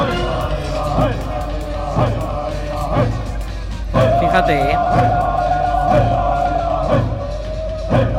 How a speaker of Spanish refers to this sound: ¿Qué te parece la canción de los toros mecánicos? Me encanta, me encanta una canción chica que a todo, el público les gusta mucho, chicos y chicas, y la graban con su móvil para escuchar la canción y se la guardan en el móvil.